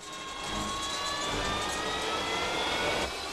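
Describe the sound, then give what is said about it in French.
A Harrier jet taking off in a scene from the film True Lies: a loud, steady engine roar with a high, thin whine running through it, swelling after the first half-second and cutting off near the end. No one speaks. “Wow Il a des centaines d'heures de vol sur des haris.”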